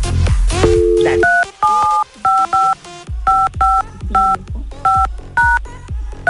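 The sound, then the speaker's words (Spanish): The phone number of a clothing store in Mexico is punched in on a keypad: a quick run of about ten short, bright dual-tone beeps in an uneven rhythm, each cut off cleanly, with louder low thumps and clatter underneath. “Vamos a marcar a la tienda donde compra la ropa allá en México.”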